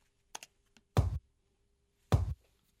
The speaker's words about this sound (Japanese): まずこうやってね、えー、ヤミーさんの印鑑の音がキックになってます